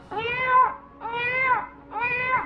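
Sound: kitten meowing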